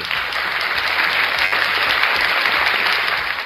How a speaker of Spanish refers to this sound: Muy bien. Este lo, entendemos nosotros solo, pero bueno, amerita un aplauso.